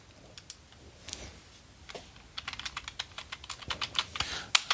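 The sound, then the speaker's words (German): Crisp computer keyboard typing and mouse clicking while someone looks up new reviews online, sparse at first and then a quicker run of irregular taps with no talking. “Da muss ich mal kurz einmal klicki, klicki, klicki, bumm.”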